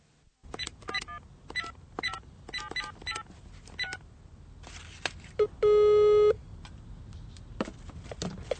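A telephone being dialed to call a colleague in the Czech Republic, with a quick, irregular run of short key beeps and clicks, followed after a pause by one loud, steady buzzing ring tone lasting under a second. No one speaks.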